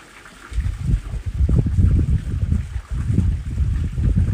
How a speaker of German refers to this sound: Wenn du mit deinen Gedanken abdriftest, dann lass dich von dem Wind, den du hier während der Meditation in der Aufnahme hörst, immer wieder daran erinnern, zu deinem Atem zurückzukehren.